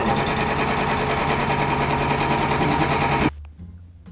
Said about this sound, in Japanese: あすいません今ねあのー、納車でね作業をしてる途中で今収録してるんですけどいきなりコンプレッサーが回りだしたんで一回ちょっと収録を止めてました